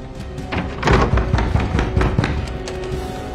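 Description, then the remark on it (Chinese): Police pound heavy fists on a door in a rapid, urgent series of about eight loud thuds, over a steady background rumble, with no voices. “这边的 T bag 警笛声越来越近，门外警察疯狂的敲门。”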